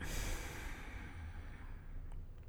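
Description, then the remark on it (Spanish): A long, slow exhale during a breathing exercise, after inhaling and briefly holding the breath: a soft airy rush that gradually fades over a couple of seconds, with no talking. “exhalar.”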